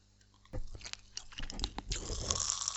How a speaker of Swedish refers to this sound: Oj! Det ljudet känner jag igen det. Mm. Det här Vi kallar det här för knastertuggummi när jag var liten. Men jag tror att det heter Pop Rocks för de flesta.